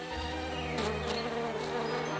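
A bee buzzes steadily and continuously for a couple of seconds, a low droning hum with a few brief airy flutters, soft, with no voices.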